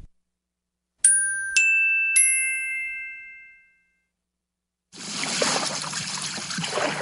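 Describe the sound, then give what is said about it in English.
Three bright chime dings ring out and fade, then after a short silence a steady hiss of falling rain starts and keeps going. “It started to rain.”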